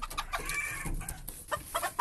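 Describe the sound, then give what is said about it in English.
A rooster named Yannick crows amid a busy mix of clucking chickens, the calls harsh and harmonic, rising and falling in loudness over a couple of seconds with no one talking. “Did you hear that rooster?”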